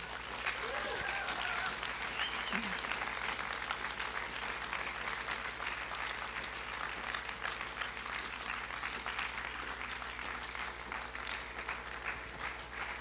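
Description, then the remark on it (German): Sustained audience applause at the ISF Thun church as two people are welcomed onto the stage: a dense crackle of many hands clapping steadily for about thirteen seconds at an even, loud level, with faint cheers and voices mixed into the crowd noise. “Und darum würde ich gerne die zwei jetzt mit einem riesen Applaus auf die Bühne bitten.”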